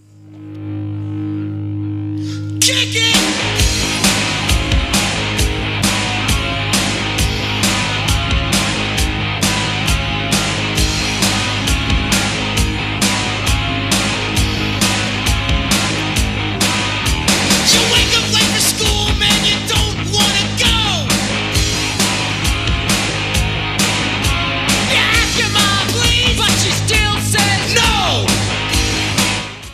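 A rap song plays from side A of a 1987 compilation vinyl record, kicking in loud after a brief low hum, with steady pounding drums, dense guitars and shouted vocals driving on without pause.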